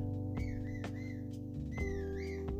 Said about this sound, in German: Oh, cool, ich kann pfeifen, lol. Gut, komm her.